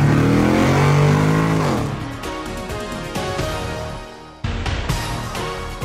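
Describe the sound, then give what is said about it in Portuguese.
A car pulls away in first gear and accelerates hard, its engine note climbing steadily in pitch, then briefly dipping at a gear change before revving on, loud. “engata a primeira e acelera.”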